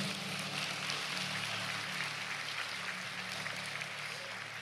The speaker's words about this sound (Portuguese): E aí, pode aplaudir Jesus por essa noite?